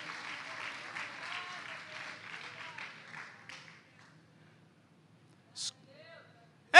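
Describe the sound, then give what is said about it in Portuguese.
A church audience raises their hands and applauds Jesus in a dense, sustained wash of clapping that gradually thins and fades out after a few seconds, leaving near silence broken by a brief voice. “Levante a sua mão, meus irmãos, e aplauda Jesus eu já estou sentindo a presença de Deus aqui.”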